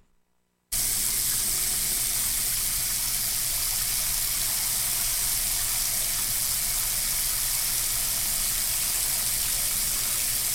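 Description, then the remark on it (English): Water streams steadily from a shower head, a dense, even hiss that starts abruptly after a brief silence and continues without change, fairly loud, with no voices. “It's a shower head. It's a shower. Water coming out of a shower faucet.”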